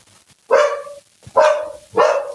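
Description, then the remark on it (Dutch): Three loud, sharp dog barks, spaced about a second apart, each a short bright yelp with a quick onset; no voices, just a brief quiet gap between barks. “Kijk, daar hebben we een hond.”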